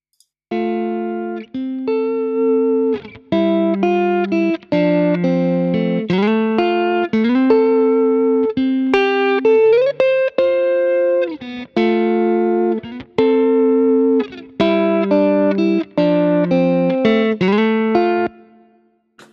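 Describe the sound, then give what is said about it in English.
An electric guitar heavily compressed by a compressor on a hard setting plays a steady run of sustained, bright notes and chords, its volume held flat and even from start to finish with no talking over it. “So just, this is really a hard setting here for the compressor.”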